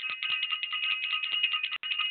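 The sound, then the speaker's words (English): A bell rung rapidly: bright, high-pitched jangling made of quick repeated strikes, steady and fairly loud for about two seconds, with one brief break near the end. No one speaks. “So I want to ring the bell”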